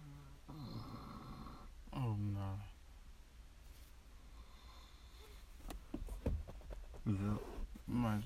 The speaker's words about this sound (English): You snoring. Cause I'm not snoring. Cause I'm breathing, cuz. I'm just breathing heavy